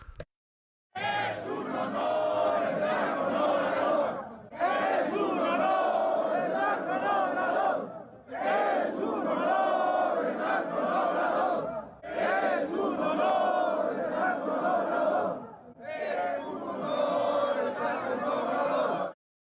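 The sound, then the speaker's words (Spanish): A large crowd of Mexican Electricians' Union protesters chants loudly in unison outside the court, protesting the court's blocking of the electricity reform. They shout five long rhythmic phrases separated by brief pauses, the massed voices forceful. “Eh, mire, yo quiero que, que usted escuche parte de lo que salió ahí con el Sindicato Mexicano de Electricistas, que afuera de la corte andan protesta, inventando la madre.”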